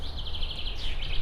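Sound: many birds chirping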